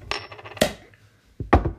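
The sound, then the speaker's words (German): A beer bottle being opened: a bright metallic clink with a short ringing tail, a sharp snap, then two quick knocks close together. No one speaks. “Erstmal ein Bierchen aufmachen.”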